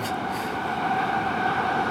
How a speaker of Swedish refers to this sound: Nu kommer tåget igen. Här. Ska du vinka till tåget? Ja, det kan vi göra.